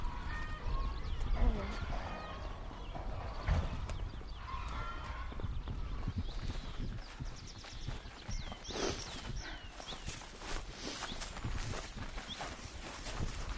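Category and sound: animal, chickens clucking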